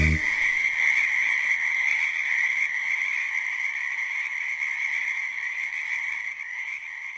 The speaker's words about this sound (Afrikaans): Vyf klein paddatjies weer bymekaar, hoor net hoe ons sambal jaar.